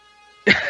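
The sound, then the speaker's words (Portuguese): A single loud sneeze bursts out abruptly after a moment of near silence with a faint background hum, short and explosive, with no talking. “Saúde.”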